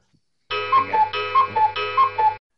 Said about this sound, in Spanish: esto está todo enlatado y yo lo voy a pegar con una campanilla de las de el 1, 2, 3 de los tacañones.